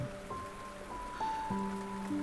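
Steady rain patters in a continuous, even hiss, with sustained musical tones holding and shifting pitch on top. No voices are heard.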